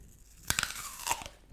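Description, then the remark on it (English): A crisp bite into an apple, with a sharp crunch followed by a few quick crackling chews, loud and alone against quiet background. “That is crunchy.”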